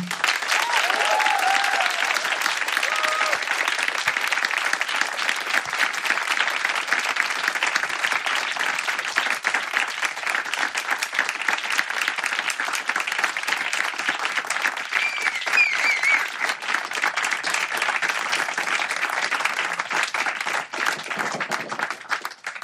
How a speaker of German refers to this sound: Könnt ihr denen bitte mal einen krassen Applaus geben?